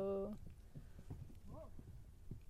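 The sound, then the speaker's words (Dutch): Horse hooves clop steadily on the ground at a walking pace as a horse is ridden in nice weather, with a brief voiced sound at the start and a short chirpy call partway through. “Oh, het is wel lekker weer om paard te rijden.”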